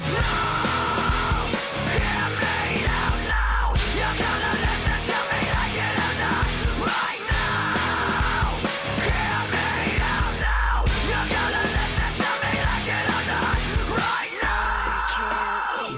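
Loud, dense rock track with hard-hitting drums and heavy guitars, over which a voice screams raggedly in repeated bursts, the music briefly dropping out between sections before crashing back in.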